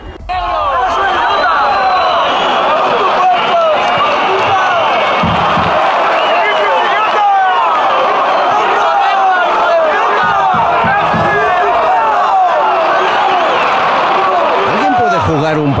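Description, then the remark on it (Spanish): A large football crowd shouts insults at the gates while entering Mestalla stadium, a dense, continuous, loud roar of many overlapping voices with no letup from start to finish. “Esto era en las puertas mientras entraban en Mestalla. Luego, durante el partido, siguieron los gritos.”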